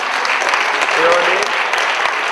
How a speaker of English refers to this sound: Now, I don't know if you guys are shocked or jealous, but why are you just staring at it? there you go. You clap